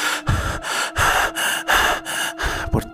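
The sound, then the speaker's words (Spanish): Heavy, rapid panting breaths after running, about six or seven rasping inhale-exhale cycles in a steady rhythm, with no talking. “Quizás la respiración de ustedes no mal.”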